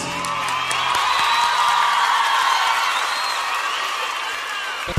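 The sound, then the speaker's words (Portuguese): A crowd applauds and cheers steadily for several seconds, a dense wash of clapping with shrill rising and falling whistles and shouts woven through it, ending with a brief thump. “Palmas para vocês.”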